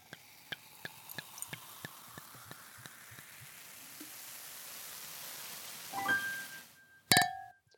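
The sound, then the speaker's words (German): Sparkling wine (Sekt) fizzes with scattered little pops and crackles, then Sekt glasses clink together in a toast near the end, a bright ringing chime followed by a louder clink that rings on. No one speaks. “Ja, Sie haben es gehört, wir stoßen mit Sekt an heute.”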